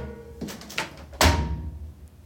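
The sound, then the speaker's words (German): A couple of quick clattering clicks as the two metal drum doors of a top-loading washing machine are closed and hook together, then a loud lid slam with a deep thud and a short ringing decay. The machine stands in a bathroom area. “Es ist ähm, eine Waschmaschine, die man von oben lädt.”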